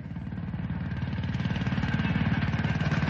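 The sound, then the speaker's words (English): A railway handcar rattles along the tracks with a steady, rapid mechanical chugging and clatter that grows slightly louder over a few seconds. No one speaks. “What brings you all the way out here on a handcar?”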